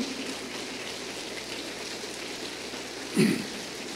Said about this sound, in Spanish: Yo quiero que le den un aplauso al Señor, de alabanza, de gratitud.